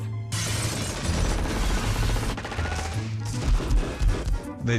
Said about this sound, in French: Ils ne voulaient pas qu'on tire avec des armes automatiques avant 5 heures du soir. Mais dès que 5 heures passaient, ils sortaient l'artillerie lourde.